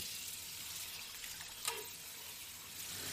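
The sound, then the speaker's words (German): Steady, crackling sizzle of sweet potatoes frying in hot fat on an induction hob, a continuous hiss with fine popping throughout, fairly loud, with one brief sharper pop midway and no talking. “Man hört das auch, dass es hier schon schön brutzelt.”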